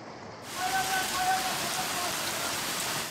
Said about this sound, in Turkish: Adana'da da önce dolu yağdı, hemen ardından yağmur. Sağanak yağış sonrası yollar göle döndü.